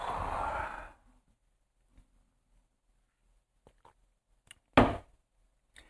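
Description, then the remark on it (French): Someone takes a sip of water: a long breathy draw at the start, faint scattered mouth clicks and a swallow, then a short sharp exhale. No one speaks. “Oh, je vais prendre une gorgée d'eau.”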